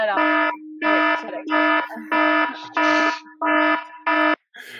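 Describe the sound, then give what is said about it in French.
A loud, harsh electronic alarm blares in repeated bursts, about seven pulses in a steady rhythm with a low steady hum continuing beneath the gaps. “Ah ben non, l'alarme, c'est que quand il aime.”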